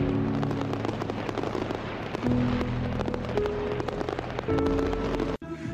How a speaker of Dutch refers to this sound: En dan knalt hij het vuurwerk op een fantastische manier. In die kanonnen die achter die spelers staan. In de kleuren zat het jet natuurlijk in het geelblauw.